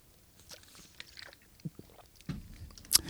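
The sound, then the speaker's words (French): Someone takes a sip of water: quiet wet mouth clicks and a swallow, ending with a sharper, louder smack, with no talking. “Je me prends une autre petite gorgée d'eau, excusez-moi.”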